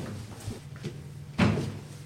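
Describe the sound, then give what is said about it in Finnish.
A small door leading to a crypt is handled: a few soft clicks and creaks, then one solid wooden thud as it swings shut, over a low steady room hum. “Tämä pieni ovi vie kryptaan.”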